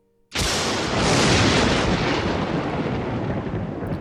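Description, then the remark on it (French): A sharp thunderclap from a lightning flash cracks suddenly out of silence, then rolls on as a loud, broad rumble that slowly fades over several seconds. No one speaks. “Un nouvel éclair déchire le ciel et, lorsque sa lumière décroît, l'étrange personnage n'est plus là.”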